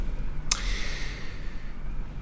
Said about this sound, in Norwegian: Men før det så må jeg bare si at uh, det er et voldsomt vær ute i dag. Det pøsregn og blåser noe voldsomt, så det er lyden du hører i bakgrunnen, hvis du lurte på det.